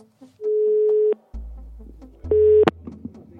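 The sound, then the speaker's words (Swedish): A phone line's ringing tone sounds twice as steady mid-pitched beeps as Aftonbladet calls a chief prosecutor at the end of July 2021, with a low hum between them and a sharp click as the second beep ends. No one speaks. “Vi ringer honom i slutet av juli 2021.”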